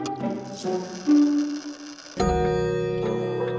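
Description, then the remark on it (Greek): A clock strikes midnight with several resonant chimes, the first few softer and spaced apart, then a louder, fuller stroke rings out and lingers, with no talking. “Μόλι το ρολόι χτύπησε μεσάνυχτα, άκουσαν ένα τρεχαλιτό, ύστερα ένα θόρυβο.”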